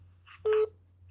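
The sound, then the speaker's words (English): A single short electronic telephone tone sounds, loud, lasting about a fifth of a second over a steady low electrical hum, as a caller drops off the line. “calling us on the bat phone”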